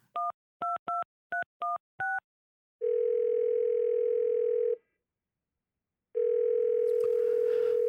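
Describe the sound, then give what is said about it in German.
Six quick keypad dialing beeps as someone calls a man again, then a telephone ringback tone: two long, steady buzzing rings separated by a pause, with no one picking up. Clear, no talking. “Am besten ich rufe ihn nochmal an, oder?”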